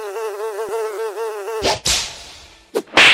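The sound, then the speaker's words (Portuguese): A small fly buzzes for about a second and a half, a steady whine with wavering pitch, then it cuts off into a few short, harsh bursts of rustling noise. “E, enfim, daí assim a gente vai mantendo as mosquinhas semanalmente.”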